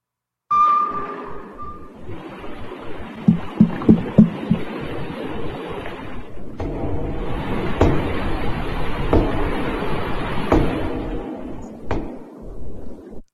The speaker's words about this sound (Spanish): Pero escuchen, escuchen los sonidos que detectaron eh, debajo del océano del submarino, escuchen esto.